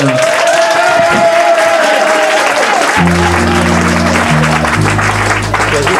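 Dense, steady audience applause fills the whole clip, loud and continuous, while low sustained band notes start sounding beneath the clapping about halfway through.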